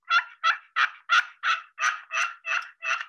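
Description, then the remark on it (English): A double push pin turkey call makes a rapid string of about nine raspy, buzzy fighting purrs, each a short harsh burst in an even, steady rhythm, fairly loud with no talking. “This is a double push pin that you can use for fighting purrs.”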